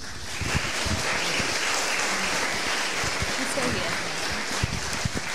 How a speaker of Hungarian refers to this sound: Come on, let us give a clap offering to the Lord Jesus. Először is tapsoljuk meg az Úr Jézust.